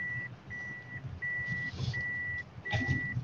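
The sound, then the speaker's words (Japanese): A vehicle's reversing alarm beeps steadily, about five evenly spaced tones over a low rumble of engine and background noise, with a brief clatter near the end. “ごめん、ピーピーなってた。うん、ガンガン聞こえた。”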